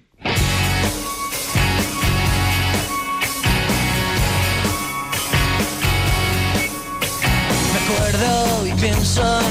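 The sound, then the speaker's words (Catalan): A full-band pop song plays loudly and steadily on a radio show, with a driving beat, dense instrumentation and a sung melody that bends and glides near the end. No one talks over it. “Uh, et posaré una cançó, aviam si podria ser la cançó que acaba triant la protagonista de Listes Guapes i Límpies quan li toca escollir uh, una cançó a la festa i ella es queda en blanc, d'acord?”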